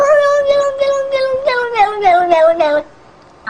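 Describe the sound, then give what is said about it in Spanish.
A cat from Russia lets out a long, wavering run of loud yowls, its pitch sliding up and down in pulsing, almost speech-like bursts for nearly three seconds before falling quiet. “¿Y qué significa ese gato de Rusia que, que se queda hablando?”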